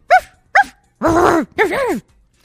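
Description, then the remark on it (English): A person imitates a dog barking: two short, sharp woofs followed by two longer, drawn-out yowling barks, loud with brief pauses between them. “Bark, people move, and if you if you need to meow, sometimes a meow will get get you by”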